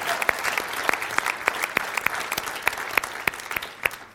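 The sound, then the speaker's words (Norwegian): An audience applauds steadily, a dense patter of many hands clapping with a few sharper, louder claps standing out at a regular pace, fading slightly toward the end. “Ja, gi henne til applaus.”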